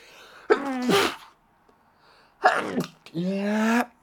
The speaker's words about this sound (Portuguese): Oi, eu vou espirrar já.